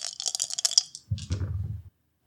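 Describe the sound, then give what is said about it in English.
Dice are rolled in a tabletop game: they rattle sharply in a cup or hand for about a second, then tumble and thud across a tabletop before settling into silence, landing on a seven, an eight and a seven. Fairly loud, with no talking. “I'm gonna roll me some faith extra dice to it too.”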